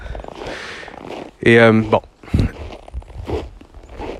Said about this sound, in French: est ce que vous entendez, c'est mes, mes bottes qui craquent. Il fait à peu près euh, moins 25 ici au Québec en ce moment.